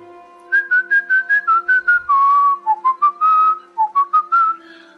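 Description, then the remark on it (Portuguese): Someone whistles a short, lively melody, with quick separate notes sliding into a few longer held tones, loud and clear over a faint steady background hum. “Quando você chega e assovia, é.”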